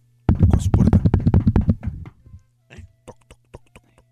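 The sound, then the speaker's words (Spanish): A burst of loud, rapid knocking, like knuckles rattling on a door, followed by a few slower, quieter single knocks spaced apart, all over a low steady hum. “La tentación tocó la puerta”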